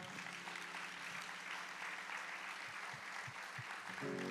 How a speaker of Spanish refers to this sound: Entonces, Dale un fuerte aplauso al Señor.